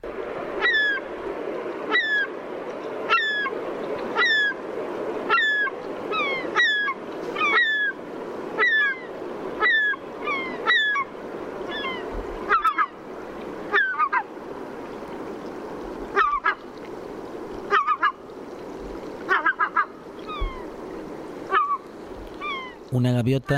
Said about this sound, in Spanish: un cormorán. Bueno, suena a gaviota, ¿no? El sonido es típico, bueno, de lo que podemos oír por la costa. Eh, oímos lamentos, especie de lamentos, algunas mm, especie de ladridos también cortos, eh, roncos.